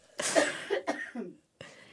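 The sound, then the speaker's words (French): A person coughs a few times in quick, harsh bursts, fairly loud, with a brief pause before a final short cough starts. “Oh mais toussé, allez-y.”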